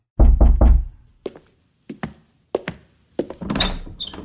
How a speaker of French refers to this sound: Douze ans plus tard, toc, toc, toc,